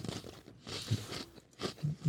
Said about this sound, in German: Ein mhm. Ökonom, der hier Kekse isst, hatten wir auch noch nicht. Bitte? Ein Ökonom, der hier Kekse isst. Ja. Das sind unsere Netto-Kekse.